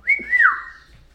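A cockatiel gives one clear, fairly loud whistle lasting about a second. It holds a bright steady note, then slides smoothly downward and fades, with no talking over it.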